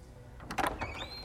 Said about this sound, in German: Plötzlich schwingt Newcombs Tür auf.